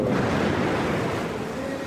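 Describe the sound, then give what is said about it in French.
A dense, steady rumble of gunfire and explosions outside, across the border, muffled and continuous rather than sharp, with no clear separate shots and no voices. “Les échanges de tirs et les explosions dehors, de l'autre côté de la frontière, nous rappellent la proximité des combats.”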